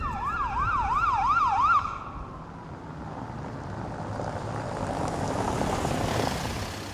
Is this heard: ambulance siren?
yes